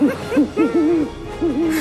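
An owl hoots in a quick series of soft, wavering calls, clear with no voices, the hoots rising and falling in a rhythmic pattern over a quiet background.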